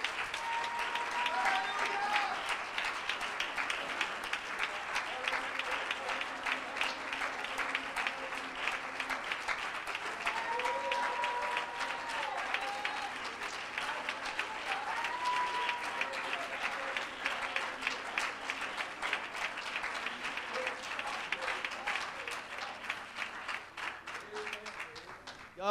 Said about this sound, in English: Amen. Let's give the Lord a hand clap of praise this morning.